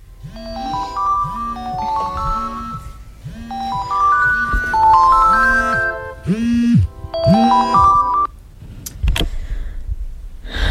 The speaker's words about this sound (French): Il est 4 heures du matin. Euh, mon réveil vient de sonner.